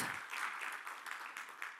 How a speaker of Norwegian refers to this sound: Ja. Det er verdt en stor applaus.